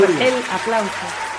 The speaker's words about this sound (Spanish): Un aplauso.